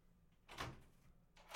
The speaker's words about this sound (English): Oh, and we have a knock on the door.